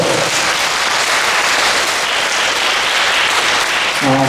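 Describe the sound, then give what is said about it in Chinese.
An audience bursts into loud, dense applause, many hands clapping steadily for about four seconds, as the speaker urges them to clap, with a voice faintly starting up just as it ends. “福报自然成的，啊，会成为国王呢，受天人的快乐，赶快拍手哦！”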